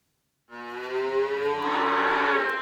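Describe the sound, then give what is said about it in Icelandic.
A single long moo from a dairy cow at Skálholt, Iceland, begins after a brief silence, a loud, rich harmonic bellow that swells and holds steady for about two seconds. “Þegar hafi verið seldar fimm kýr og tíu eru falar”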